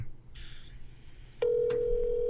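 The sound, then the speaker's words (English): A phone call to Ham Thai Restaurant rings through a handset held up to a microphone: a steady electronic ring tone starts about halfway through and holds unbroken to the end, loud over faint room noise. “hold the phone up to the uh, the mic. Up to the microphone.”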